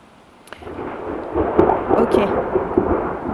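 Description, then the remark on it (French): Thunder rolls and rumbles through a storm, a deep swelling roar that builds after a quiet start and stays loud, with rain hissing steadily underneath and a few sharp crackles. “Alors, question à ceux qui sont bons en sciences Est-ce que c'est dangereux d'avoir un micro dans les mains quand il y a de l'orage”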